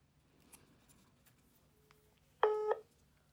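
A single short, loud electronic telephone tone, like a keypad dialing beep, sounds near the end after a stretch of quiet background noise with faint clicks, as a phone is dialed to add another caller to a group phone call. No one speaks.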